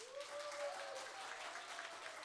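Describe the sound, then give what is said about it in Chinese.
A crowd applauds steadily, a dense, even patter of many hands clapping at moderate loudness, with a faint tone sliding underneath early on. “我在印尼也是这样讲，印尼人掌声呢，各位。”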